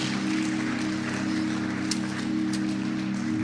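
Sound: audience clapping hands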